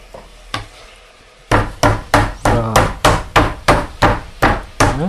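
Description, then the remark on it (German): A meat mallet pounds meat thin, steadily, about a dozen thudding blows in an even rhythm, fairly loud, after two lighter taps at the start. “Jetzt klopfe ich die eben, wird ein bisschen laut.”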